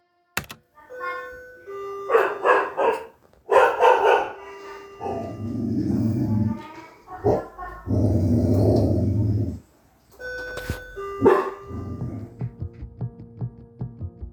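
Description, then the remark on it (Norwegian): A guarding dog, threatening aggression, barks in sharp clustered bursts, breaks into two long, low, rumbling growls, then barks again, fairly loud, with no one speaking. “Dette var en hund som bjeffa fordi han vokta.”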